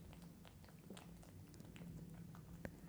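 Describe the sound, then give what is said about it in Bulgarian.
A cat named Goshko chews and smacks its lips in a studio, soft wet clicks coming in an irregular patter with one sharper snap near the end, over a low steady hum. “сега Гошко почна да си мляска.”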